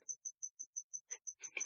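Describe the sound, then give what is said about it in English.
A cricket chirps in a steady, evenly spaced series of about ten short, high-pitched pulses, clear, with some faint rustling or muffled noise mixing in toward the end. “Do you hear the cricket? Is that the fucking cricket?”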